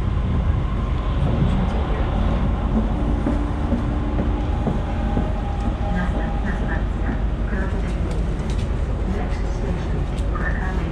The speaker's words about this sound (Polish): pociąg jedzie w kierunku tutaj, tak?